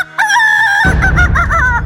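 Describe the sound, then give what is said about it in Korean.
A rooster crows loudly, a sustained harmonic call, followed by a run of short repeated clucks over a rough, noisy background. It is one of two pet chickens kept on an apartment balcony. “무엇보다 시도 때도 없이 울리는 두 닭의 울음소리!”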